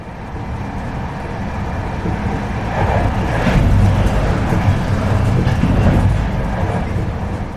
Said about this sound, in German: Erkennen Sie dieses Geräusch? In meinen Ohren klingt es wie Musik. Es ist ein Zug, der durch die Nacht fährt. Nicht irgendein Zug, sondern ein Nachtzug. Mit Schlaf- und Liegewagen, wo die Abteile Betten haben und Tische und Leselämpchen für die Nacht